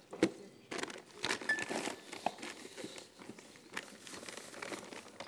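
Someone rummages through a bag looking for paper notes, with irregular crinkling, rustling and soft thumps of items being shifted around for several seconds, no one speaking.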